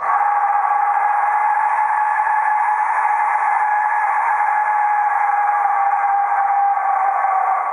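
A piercing, continuous shriek from a special Halloween version of an Aztec water whistle, filled with water and tilted rather than blown, the moving water pushing out the air. Loud and sustained for the whole stretch with a harsh, warbling, scream-like tone and no pauses or talking.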